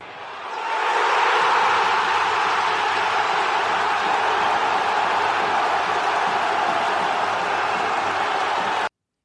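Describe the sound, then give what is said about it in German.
A played cheering-crowd sound effect celebrating a listener of the week: a large crowd roars and cheers in a dense, steady wash of noise that swells up over the first second, holds loud and unbroken, then cuts off abruptly. “Hier ist dein Hörer der Woche Jubel.”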